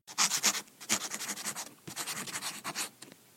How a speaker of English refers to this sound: He takes a piece of paper and a quill and he writes out the letter.